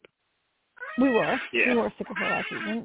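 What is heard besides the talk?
creaking chair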